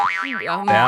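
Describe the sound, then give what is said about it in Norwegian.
A voice imitates the springy bounce of a man landing on his testicles in a bicycle fall, with a wobbling, boinging pitch that rises and falls in quick undulations, then jumps into a louder, buzzy sustained tone, alone. “Sånn høres det ut når jeg lander på ballene mine.”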